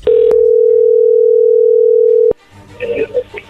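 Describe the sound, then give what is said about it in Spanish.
A steady, loud single-pitched telephone tone holds for about two seconds as a phone call is put through, broken by a brief click near the start, then cuts off abruptly before faint voices and line noise follow. “ya entro ahí la llamada.”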